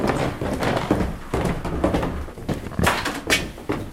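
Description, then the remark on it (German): Footsteps climb the creaking wooden stairs to the first floor of a historic, listed restaurant building on a market square, a steady series of hollow thuds roughly every half second over a faint background. “Wir sind jetzt die knarzende Treppe hochgelaufen, sind jetzt im ersten Stock und hier sehen wir einen Gastraum, der in einem historischen, denkmalgeschützten Gebäude für die Gäste da ist, oder?”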